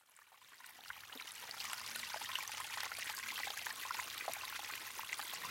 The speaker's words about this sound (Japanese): あのちょうどこれ五十鈴川の上流域来てこれがまさに源流の水音ですねここは上地山というところの、えー、剣峠に近いところですねもうすぐもう頂上ですコンコンと水がいい音出しながら湧き出てますので